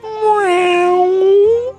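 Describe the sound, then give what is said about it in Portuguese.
A person's voice imitates a single cheerful cat meow, one drawn-out, fairly loud call lasting under two seconds, with a bright tone that bends gently in pitch. “manda um miado bem feliz pros meus três nenéns felinos.”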